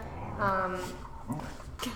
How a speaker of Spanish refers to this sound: ay, mis perritas. Tengo mis perritas, mi familia. Quieren hablar también. Tienen algo que decir.